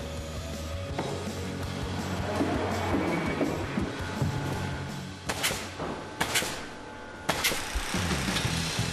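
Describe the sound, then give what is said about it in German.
A concrete mixer runs at a building site in Altenau, used to pour concrete into finished formwork for cellar stairs, with a steady, loud mechanical rumble and drone, broken by a few sharp clanks and thuds toward the end. Nobody speaks. “Und das Lieblingsgerät der Altenauer ist mal wieder im Einsatz, der Betonmischer.”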